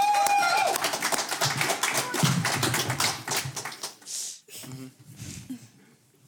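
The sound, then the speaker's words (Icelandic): A short burst of lively hand clapping from a few people, dense and crackly at first, then thinning out and fading as a voice starts up near the end. “gefið alveg dásanlegt lóklapp”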